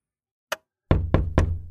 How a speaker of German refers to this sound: Ein Klopfen an der Tür lenkt den Fokus weg von der Anspannung und auf den Besucher.